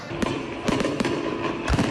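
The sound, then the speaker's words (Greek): Fireworks bursting over the country's largest harbour in quick succession, several sharp cracks and booms rising out of a steady rumbling wash of noise, with faint crowd murmur underneath. “Βεγγαλικά στο μεγαλύτερο λιμάνι της χώρας.”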